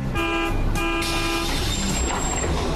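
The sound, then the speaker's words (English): A bus horn toots twice in quick succession, loud, two brassy blasts each lasting about half a second, followed by a hiss of passing traffic. “But if you'll wait right here, in just about uh, two minutes, the bus to point C will be coming right by.”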